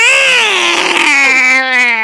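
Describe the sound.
A person imitates a cat in heat with one sustained, wailing yowl whose pitch dips then slowly glides lower, loud and rich in harmonics, with no other talking over it.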